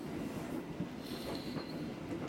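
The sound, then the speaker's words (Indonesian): Steady low rumble of a train rolling along the rails as heard from inside a carriage, with a faint high wheel squeal rising briefly midway and no voices. “tapi kamu tahu gak sih aku tuh paling seneng banget naik kereta ya karena bisa lihat pemandangan dari kaca nih dari kaca ini”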